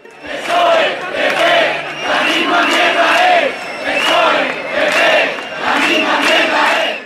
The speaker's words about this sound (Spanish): Cuando la gente en las plazas cantaba que no nos representan, se lo decía al sistema en general